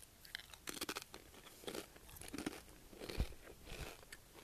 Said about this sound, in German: Und ich muss mal kurz dazwischen knuspern. Ich habe mir ein paar Tortillas geholt und dippe die und dann knusper ich die.